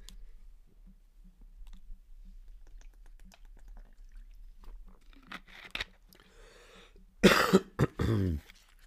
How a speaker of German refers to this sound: Und jetzt muss ich kurz ein Schluck Wasser trinken. Kleine Erinnerung für dich vielleicht auch.